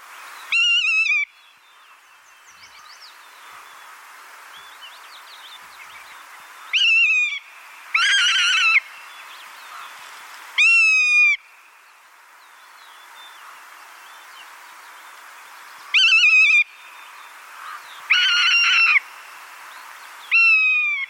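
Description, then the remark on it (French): A bird repeats bursts of descending whistled notes and harsher rasping calls, separated by pauses over a quiet outdoor background, loud with no talking. “Et comme à l'habitude, voici le chant et le cri de l'oiseau à l'honneur aujourd'hui.”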